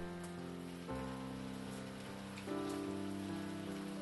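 Steady rain falls in a continuous hiss, heard while soaking in a bathtub, with sustained musical tones shifting chords twice beneath it. No voices are heard.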